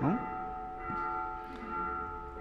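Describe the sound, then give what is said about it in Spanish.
Church bells ring steadily in the morning with long, overlapping tones that hang in the air. They sound fairly quiet, and a faint voice may be murmuring underneath. “Como que estas campanas no nos dejan, No nos quieren, nos quieren dejar esta mañana.”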